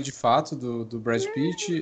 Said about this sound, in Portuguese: Que isso foi a gata?